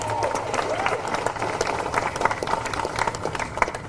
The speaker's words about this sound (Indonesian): Sekali lagi tepuk tangan untuk media dan teman-teman wartawan.